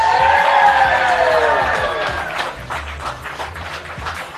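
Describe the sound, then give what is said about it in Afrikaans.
A crowd at Broers Restaurant cheers and whoops loudly to welcome a performer, high voices sliding downward, then settles into steady, scattered applause with sharp individual claps. “Dames en here, Verwelkom asseblief hierso by ons by Broers Restaurant.”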